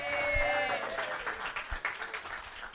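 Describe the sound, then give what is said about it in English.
A short burst of applause, dense crackling clapping from a small group that stays steady for a few seconds, with a brief bright tonal chime at the start. “Give him a round of applause.”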